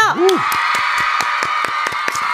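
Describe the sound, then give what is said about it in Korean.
Steady clapping from a small group in a studio for the release of a singer's fourth mini album, sharp irregular claps repeating over a sustained bright wash, with a brief vocal whoop at the very start. “… 네 번째 미니 앨범이 나왔습니다. 박수 한번 주세요.”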